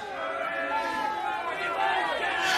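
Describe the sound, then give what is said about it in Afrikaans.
A rowdy crowd clamours outside, many voices shouting and calling over one another in a steady, loud roar with no pause throughout. “Hoor jy nou, toe van die gepeupelde kere daar buite?”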